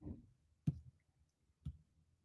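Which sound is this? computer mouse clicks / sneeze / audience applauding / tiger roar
computer mouse clicks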